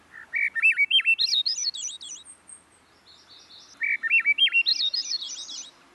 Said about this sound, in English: Still others name the singing of the Swainson's thrush.